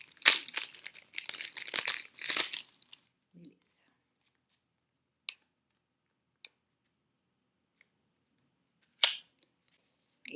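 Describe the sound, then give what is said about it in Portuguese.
Crinkling and rustling of plastic wrap being torn open with a ruler on a small card-deck box for a few seconds, followed by a few sparse, sharp clicks and taps in near silence. “Eu peguei uma uma régua aqui para tentar não machucar minha caixinha.”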